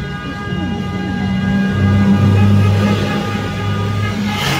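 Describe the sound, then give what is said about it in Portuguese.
Car horns blare in a loud, sustained chorus, several overlapping tones holding and shifting over a rumbling traffic background, drivers in Joinville honking in favor of Lula's impeachment, with no one talking. “favor do impeachment do Lula, buzina.”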